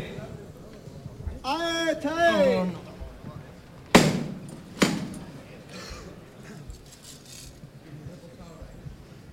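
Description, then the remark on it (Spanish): Two sharp metallic knocks from the knocker on the Nazareno's float (paso) on Calle Castilla in Seville ring out about a second apart, calling the float to be lifted to begin leaving, following a brief call from a voice, over a low murmur of crowd noise. “Se está llamando el paso de Nazareno, porque se va a levantar para empezar a salir.”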